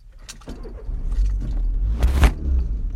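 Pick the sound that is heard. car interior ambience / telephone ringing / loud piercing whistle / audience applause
car interior ambience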